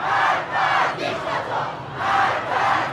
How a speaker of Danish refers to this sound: Fordi det her, det er lyden af en øh, stor demonstration i Irans hovedstad Teheran, hvor mange iranere her både lørdag og søndag har protesteret øh, mod myndighederne,